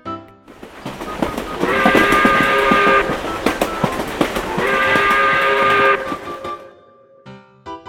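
A train rumbles past with a steady rattling roar, and its whistle blows twice in long, harmonically rich blasts about a second apart. No one speaks.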